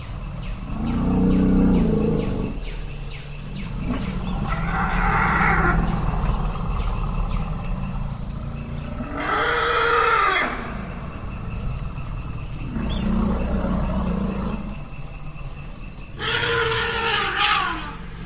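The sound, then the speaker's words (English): Elephants of a family group greet each other at a reunion, roaring and trumpeting as they rush together and twirl their trunks: several loud overlapping calls rising over a deep, continuous rumble, with bursts of shrill trumpeting near the middle and end. “they rush together, twirl their trunks together, uh, roar, urinate, defecate, flap their ears, and uh, the whole thing says that each individual is overcome with excitement.”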